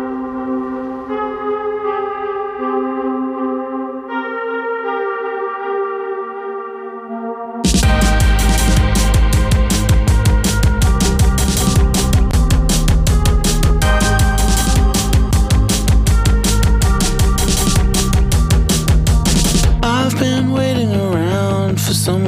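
A pop song opens with sustained synth chords alone, then a full band kicks in with steady drums and bass, loud and busy, shifting to a sparser, wobbly texture near the end.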